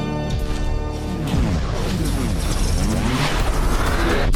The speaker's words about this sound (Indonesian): Pintu studio telah terbuka.